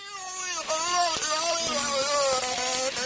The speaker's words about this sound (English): That's a whale, a white whale, or a oh beluga oh named NOC and scientists think he was imitating the human voice. Wow, a beluga whale imitating the human voice. That's incredible.